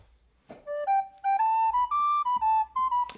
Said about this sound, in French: Non, mais il est pourri ce jingle en fait. Je sais, je te le dis depuis le début.